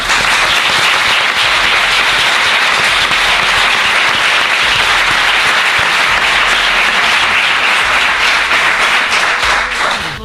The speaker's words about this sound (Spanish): Pues eso, queremos agradeceros con este aplauso el que nos hayáis invitado a estar en vuestra compañía y en compañía de tanta gente. Gracias.